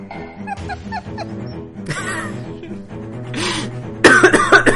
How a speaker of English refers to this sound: It's just going to be me coughing, and then we hop into the episode.